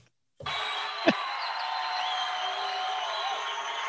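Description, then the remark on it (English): Recorded applause and crowd noise from a comedy record, as the comedian comes on stage, start abruptly and hold as a steady, dense roar for several seconds, with one brief thump partway through. “this is the applause from the Sam Kinison record as he's coming on stage”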